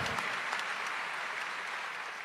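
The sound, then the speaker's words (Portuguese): A crowd at a Marian camp applauds for Our Lady (Nossa Senhora) after a Hail Mary prayer. It is a dense wash of many hands clapping at once, fairly loud and sustained without a break for the whole stretch, with no voices standing out. “Dá uma salva de palmas para Nossa Senhora.”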